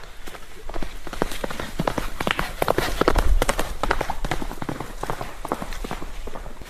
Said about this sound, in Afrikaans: Hulle doen eh, hierdie toere met hierdie perde hier deur die bos.